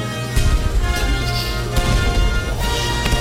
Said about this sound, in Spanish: Y ahora cinco disparos de cañón acompañan al avance de los rusos. Ahí va uno.